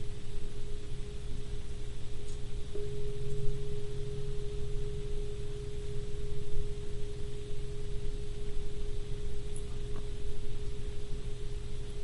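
A meditation bell's steady, sustained tone rings out after a few seconds and holds at a mid pitch without fading, over a soft, constant low hum. No one speaks.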